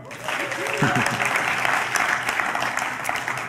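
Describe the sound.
Steady clapping from a group fills the whole stretch, a dense crackle of many hands, with a brief voice rising over it near the start.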